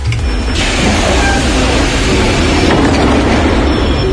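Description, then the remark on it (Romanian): A metro train rumbles loudly and steadily at Străulești metro station, the terminus of metro Line 4, a dense roar of wheels and motor with faint rail clatter, continuous throughout with no voices. “Stația de metrou Străulești, capătul de linie al magistralei 4, a fost inaugurată în 2018 și odată cu ea și o parcare supraterană cu trei etaje.”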